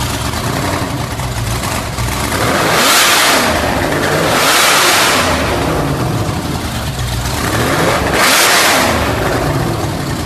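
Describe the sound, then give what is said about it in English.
Larry Miller's car engine is fired up and roars loudly, revving hard in three rising-and-falling surges with a steady throaty rumble between them. No one speaks. “All right, but we'll uh, we'll play the the clip of of uh, Larry firing it up.”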